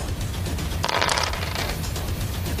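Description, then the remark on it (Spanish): Five yellow dice clatter and rattle in a brief, fairly loud burst lasting about half a second, set against a steady low background rumble. “Tírame 5 dados amarillos.”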